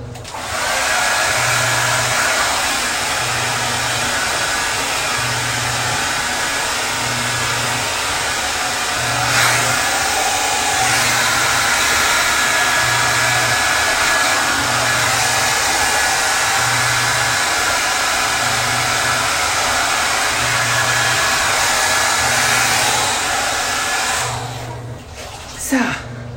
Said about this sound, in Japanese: じゃあ今からねちょっと髪の毛乾かしていきますよちょっとあのドライヤーの音がうるさいかもしれないんですけれどもパナソニックのねナノイーで髪の毛にちょっと優しく